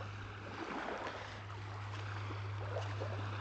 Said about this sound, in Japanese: まあ本題に入る前に今海岸沿いを歩いてるんで波の音を BGM にできるかなと思って撮ってるんで、まあ、今日なんで BGM 入ってないのと思ったら、まあ、そういうことなんだなと思ってください